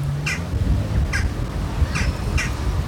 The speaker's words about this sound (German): Rund um den Hauptbahnhof fahren kaum Autos und Lieferfahrzeuge. Am meisten Lärm machen hier tatsächlich die Vögel.